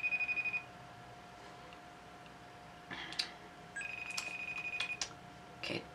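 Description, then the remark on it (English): An electronic phone ring trills in repeated bursts over a steady background tone, pausing between rings and going unanswered. The ringing is fairly loud, with no voices. “Oh, come on, Kyle. We you, you promised you would answer.”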